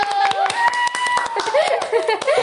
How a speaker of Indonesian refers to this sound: Tepuk tangan dulu, tepuk tangan gitu lagi.